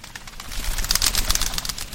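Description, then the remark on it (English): A flock of Bohemian waxwings, swirling up a canyon to the winter branches of an orchard, gives a steady chorus of thin, high, buzzy trills, many overlapping calls at once, continuous, with no voices. “To see some fab photos of Bohemian waxwings”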